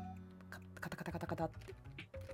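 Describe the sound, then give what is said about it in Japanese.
Quick, light clicking of computer keyboard keys in a short burst of typing, fairly quiet, with a voice-like hum running underneath. “あの、全く全然関係ないけどさ、このタイプ音聞こえ、乗ってるんかな、音。あの、カチカチ”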